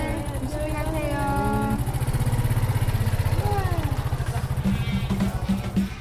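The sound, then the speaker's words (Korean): An old scooter with a musical instrument loaded on it putters with a steady, rapid low chug, fairly loud, easing off slightly toward the end as its rider leaves, with a voice speaking over it. “오래된 스쿠터에 연주한 악기 하나를 무식고 그는 그렇게 다시 평온을 노래하며 떠납니다.”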